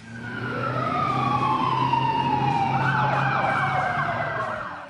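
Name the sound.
fire engine siren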